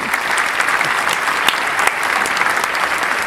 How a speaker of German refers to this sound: Gut. Dafür kriegst du, dafür kriegst du einen großen Applaus.